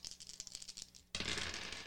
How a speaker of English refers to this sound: Roll your dice.